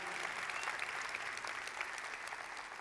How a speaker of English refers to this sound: Church, can we give a hand clap of thanks for our pastors, our lead pastors, Pastor Ed and Jody?